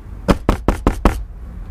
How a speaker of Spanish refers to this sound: Sí, pará porque es la gente de la hora mariposa que me está golpeando la puerta tan pesado. Ya va. Ya va.